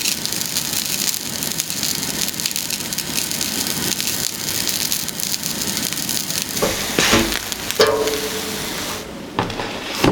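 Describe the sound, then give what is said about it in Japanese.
Tochio-age, the fried tofu specialty of Tochio in Niigata Prefecture, Japan, deep-frying in hot oil: a steady dense crackle and hiss of sizzling bubbles with a few louder pops and spatters toward the end, and no voices. “今朝は新潟県栃尾市の名物栃尾揚げの美味しい音色それではお聞きください”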